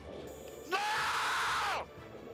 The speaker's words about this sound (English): Okay, so our first category for the evening is so far the best scream of the season, and we have two nominees.